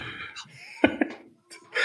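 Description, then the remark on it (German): A horse whinny sound effect plays in a short, wavering, high-pitched burst, clear, broken by a couple of sharp clicks before it trails off and briefly rises again. “Jetzt die Philly-Pferd spielen.”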